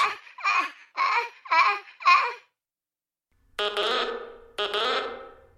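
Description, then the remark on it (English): A voice imitates the gasping call of the Tudlow, heard on a summer evening, a mating call and a cry for help: five quick, breathy gasps in a steady rhythm, a short pause, then two longer, strained, rasping cries. “Its characteristic gasping is both a mating call and a cry for help.”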